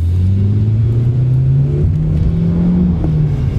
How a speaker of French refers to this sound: Une Chevrolet bon marché roule à toute vitesse sur la Garden State Parkway en direction d'Atlantic City.